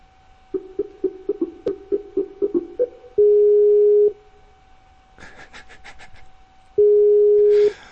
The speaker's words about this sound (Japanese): 何この着信音みたいなのをお送りせなあかんね。